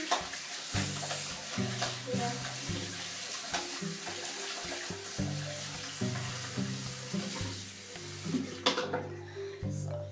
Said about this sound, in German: Und dann mache ich erstmal abwaschen.